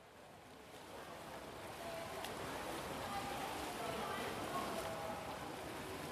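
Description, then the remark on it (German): Echoing indoor swimming pool ambience at the Schwimmoper pool in Paderborn: a steady wash of splashing water and voices murmuring and calling, with a few brief sharp knocks. “Für die heutige Folge habe ich mich dem schlechten Wetter angemessen an einen tropisch warmen Ort zurückgezogen, nämlich äh, der Schwimmoper und werde euch heute was über die Paderborner Bädergeschichte erzählen.”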